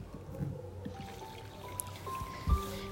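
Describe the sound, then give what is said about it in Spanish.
Water drips from a faucet in slow, irregular drops, each landing with a small pitched plink over a faint background trickle, with no one talking. “Cuando una canilla gotea, puede perder 80 litros en un día.”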